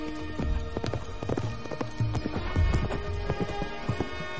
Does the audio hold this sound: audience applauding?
no